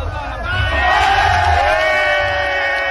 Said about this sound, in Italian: E scatta il coro.